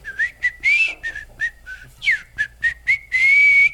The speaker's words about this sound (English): Uh, and and so I've been I've been whistling most of my life ever since my father said, uh, "Put your lips together and blow."